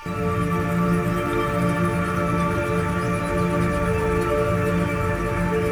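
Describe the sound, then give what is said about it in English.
A dense, shimmering wash of stacked electronic harmonics from a glitching pitch-shifting plugin, used as a sparkle layered on top of a track, holding steady and fairly loud for several seconds with faint flickering overtones and no voices. “something that was wrong in the plugin which is a pitch shifting plugin”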